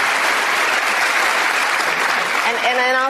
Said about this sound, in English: Now, how many people cheering are on Medicare? I don't know, but there's quite a bit of them cheering, and they cheer is for a long time.